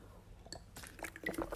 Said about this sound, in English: Sorry, I had to have a drink of water.